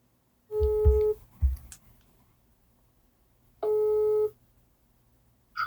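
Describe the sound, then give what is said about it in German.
Two long electronic ringback tones on a phone line as someone calls a friend again, each about a second and separated by a pause, with a low thump between them; no one speaks. “Jetzt rufe ich nochmal an.”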